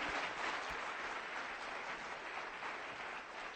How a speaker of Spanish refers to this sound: Ay, un aplauso a ese instituto, por favor. Esa gente está haciendo un trabajo espectacular.